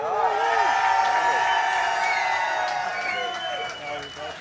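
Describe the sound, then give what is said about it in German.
A loud burst of cheering and whooping from several voices, with scattered clapping underneath, celebrating a band reaching number one in the charts, sustained for a few seconds before tapering off slightly at the end. “Deswegen erstmal Glückwunsch zur Top-Platzierung in den Charts auf die 1 und Applaus!”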